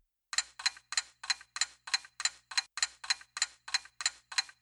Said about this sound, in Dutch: De timer